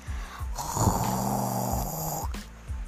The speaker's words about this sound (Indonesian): Suara dengkuran itu makin keras Kira-kira siapa ya yang masih tidur di dalam gua? Jangan-jangan harimau Takut Atau suara dengkuran monster ah, Nggak Gak mungkin ada monster di taman seindah ini